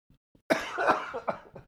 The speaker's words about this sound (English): I've been I've been coughing for like the last month on these episodes.